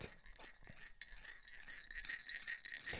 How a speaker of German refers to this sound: Es ist, du kraulst an einem Deckel von einer von einer